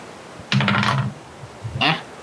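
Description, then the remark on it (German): Dice clatter and tumble across a hard tabletop in a quick rattling burst, then a shorter second clatter follows a moment later, fairly loud with no voices. “Okay, Würfel auf Fitness.”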